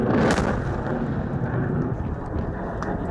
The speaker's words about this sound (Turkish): Terör örgütüne ait bir kamyon tünelin ağzında. İçeriden kamyona mühimmat yüklemek için insansız hava aracı da o anlarda kayıtta. İletilen koordinatlarla jetler kamyonu ve tünelin girişini böyle havaya uçurdu.